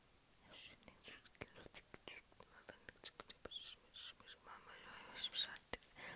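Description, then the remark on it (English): Soft ASMR whispering with breathy sibilant hisses and lip clicks, the words unintelligible, continuing steadily and quietly throughout with no voiced speech. “I also love inaudible whispering, you know, and it's sort of like.”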